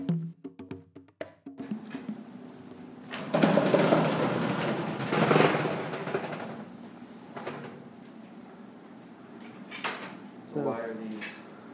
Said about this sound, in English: So you saw that I just rolled up this cabinet door um, that was locked, and it's a special collection.